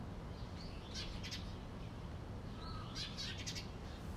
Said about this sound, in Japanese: iPhone の内蔵マイクでもどうなんですかね結構音拾ってくれてますかね今ね結構鳥、まあ、何の鳥かわからないですけど鳥が、うん、鳴いてるので聞こえるかなと思います